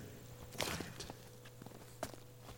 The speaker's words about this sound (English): Until all you hear is the sound of your own footsteps?